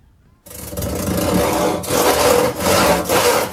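A hand saw cuts through wood in a carpentry workshop in steady, rasping strokes, a loud grating sound with brief pauses between pushes, starting abruptly after a moment of near silence.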